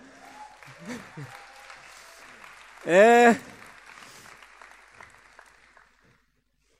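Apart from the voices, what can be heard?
audience applause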